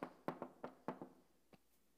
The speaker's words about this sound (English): Jesus is always there, He waits for us. I stand at the door and knock.